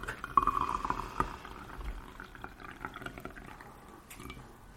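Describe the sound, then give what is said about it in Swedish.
Light yellow-green tea pours steadily into a cup, a continuous splashing trickle that is strongest at the start and gradually thins out toward the end. No one speaks. “Så nu ska jag göra något underbart, nämligen hälla upp”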